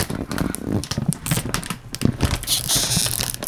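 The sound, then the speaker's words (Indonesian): A Kitela snack chip packet crinkles in a steady run of sharp, crackly rustles and pops that continue without a break, loud and dense with no voices. “Apakah kita harus ASMR pakai Kitela no sponsor”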